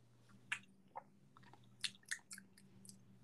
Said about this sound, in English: Y'all hear me sipping water?